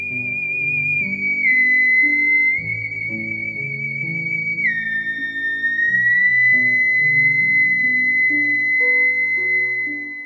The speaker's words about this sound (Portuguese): Não existe ainda um instrumento mais futurístico que o Teremin. Com a mão direita, você muda a tonalidade e com a mão esquerda, a intensidade do som. É louco demais, cara.